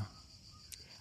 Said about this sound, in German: man hört immer noch die Grillen im Hintergrund zirpen. Es ist Urlaub für die Ohren.